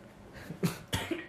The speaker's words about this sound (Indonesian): dan maaf juga lagi sedikit batuk